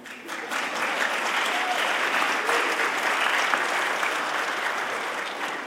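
An audience at Beth El, a conservative synagogue in central Virginia, breaks into applause after hearing it has become fully inclusive of LGBTQ Jews, many hands clapping in a dense, steady wash that holds evenly for several seconds without anyone speaking.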